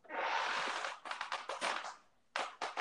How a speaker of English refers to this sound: What in the world is that? Oh, that's just my chair. Don't worry about that. Oh, sounds like you're going to hit the floor soon. No, no, not at all.